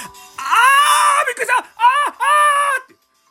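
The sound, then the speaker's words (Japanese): A woman lets out a loud, high-pitched scream of fright in three drawn-out bursts, the pitch sliding as she reenacts the moment a centipede crawled onto her hand while she washed dishes at 1 a.m. No other sound accompanies it. “まあ、あの、リアルにこれの6倍ぐらいの声で叫びました。”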